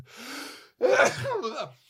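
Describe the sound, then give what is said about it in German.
A single loud sneeze: a breathy inhale builds up, then a brief pause before the sharp, explosive burst that trails off into a short voiced exhale. “Gesundheit, Dankeschön.”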